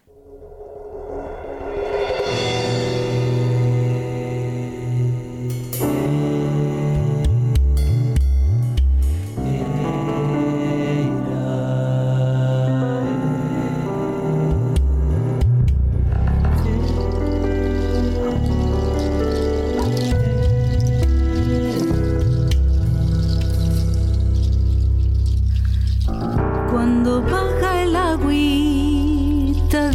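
An instrumental song intro plays steadily, with sustained tonal layers, a deep sliding bass and bubbly, drip-like electronic textures. It is fairly loud and continuous, with no singing or talking.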